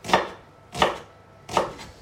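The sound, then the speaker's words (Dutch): Three crisp knife chops land on a cutting board at a steady, unhurried pace, each a sharp thud with a brief scraping tail, and no talking. The food is being cut crosswise into small cubes after first being cut lengthwise. “En dan dwars over, dat je kleine stukjes krijgt.”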